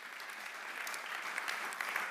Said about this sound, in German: frisch gebackener Pokalsieger des CSV Kirchheim, da darf man noch einen Applaus geben.